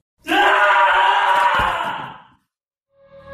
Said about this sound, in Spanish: Al adentrarse uno de los peones, este pegó un grito muy nervioso.